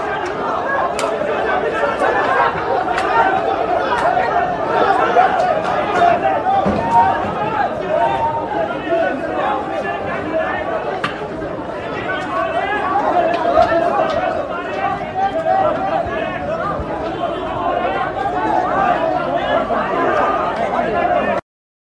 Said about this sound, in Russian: Это вот толпа... Э, Человек 50, наверное, в Да, там не всех показали, потому что часть еще остались...